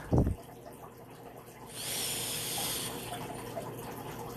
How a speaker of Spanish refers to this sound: Y ves como el agua sale limpia, muy limpia.